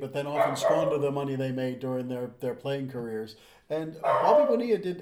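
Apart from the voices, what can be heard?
dog barking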